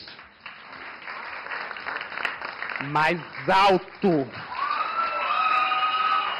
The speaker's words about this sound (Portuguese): Eu quero aplausos.